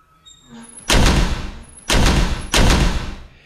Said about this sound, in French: À ce moment-là, une porte s'ouvre bruyamment à côté de lui et Peeves s'approche.